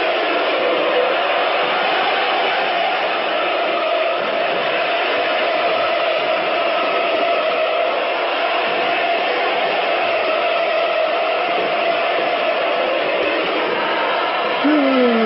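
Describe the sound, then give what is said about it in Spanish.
A dense, steady roar of a large Boca stadium crowd as Maradona is welcomed fills the space, with countless voices blending into a continuous wash of sound and a brief rising whistle-like tone near the end. “Escuchar el ambiente, escuchar el ambiente que a mí me hizo llorar”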